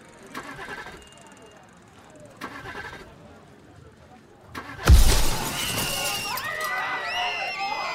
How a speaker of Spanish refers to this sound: Los cuerpos de César y de su capataz saltarán por los aires tras una explosión que dejará un socavón enorme en la carretera